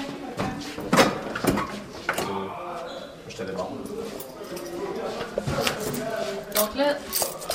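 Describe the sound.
A few sharp clicks and knocks, like a lock turning and a door swinging open, amid shuffling movement, with people talking quietly in the background. A bedroom door, room 6, is being unlocked and opened by someone else.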